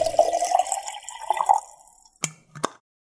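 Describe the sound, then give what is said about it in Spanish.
Hot water is poured into a mate gourd with fresh yerba, a gurgling stream whose pitch climbs as it fills, then stops, followed by two distinct drips or taps. “Yerba renovada y agua lista para volver a tomar unos ricos mates escuchando mateína”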